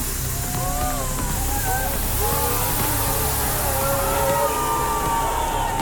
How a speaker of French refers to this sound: Voici la mousse au chocolat. Entendez, ah, il a libéré les vannes. Il pleut de la mousse au chocolat.